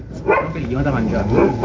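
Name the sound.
small dog barking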